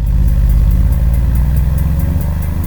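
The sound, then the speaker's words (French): A car engine hums steadily as a man drives his car around a town, a low continuous rumble with a faint regular ticking on top, running without a break and with no voices. “il prend sa voiture et se balade dans cette ville qu'il a terrorisée 20 ans plus tôt.”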